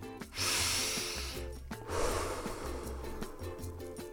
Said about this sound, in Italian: Allora, facciamo un respiro. Avete sentito l'aria che entra nel naso, poi scende, riempie i polmoni.